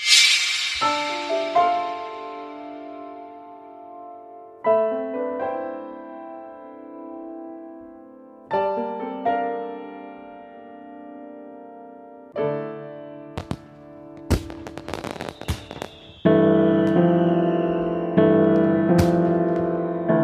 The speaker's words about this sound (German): Ja, ich zeige einfach mal den Song jetzt hier